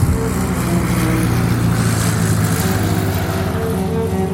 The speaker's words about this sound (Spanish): Lo hacía ahora mismo, mientras volaba sobre la costa de Mazatlán en el biplano Biplaza Sonora, la nueva máquina del ejército de Carranza.